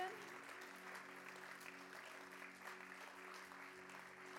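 A church crowd applauds steadily as a thank-you after a message, a dense wash of clapping that holds at an even level throughout, with a faint low hum running underneath.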